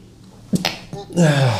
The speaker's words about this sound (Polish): przepraszam najmocniej. Na zdrowie.